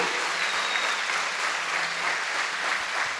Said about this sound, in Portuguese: Se essas palmas são para Jesus, podia ser melhor, não podia?